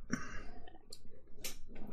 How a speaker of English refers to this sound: Getting some comments on my keyboard. They like the sound of the switches. Um, yeah, I think these are Kailh greens, is what I ended up swapping the switches out for.